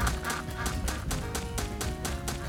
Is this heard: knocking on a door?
no